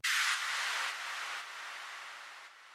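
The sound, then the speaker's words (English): A bright burst of noise hits suddenly, then sweeps downward and fades over a few seconds, its hiss gradually darkening and thinning out: a filtered noise downlifter, a noisy downer transition effect used in electronic music production in Ableton's arrangement view. “These effects include things like risers, noisy downers,”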